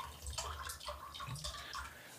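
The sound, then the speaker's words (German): A refill of a drink is poured into a glass, a steady splashing trickle with gurgling bursts lasting about two seconds, fairly quiet and with no one talking. “Ja, ich bin ähm, hier mal so unhöflich und gieße nach.”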